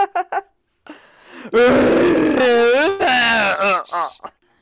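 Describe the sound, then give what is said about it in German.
A loud, drawn-out guttural roar from a rutting stag, a deep bellow rising and falling over about three seconds, preceded by a few short grunting bursts and a breathy rasp. “Das höre ich dann ja Zwei Minuten röhrender Hirsch.”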